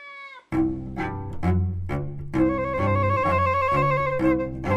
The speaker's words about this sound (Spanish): Y me gusta este gatito loco.